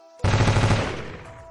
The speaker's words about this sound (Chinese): 趁他还没有撞过来，我飞快窜上了桌子，扛着突击步枪几步冲到门前，将枪口伸出窗外，对着正准备冲过来的白色巨狼就是一梭子。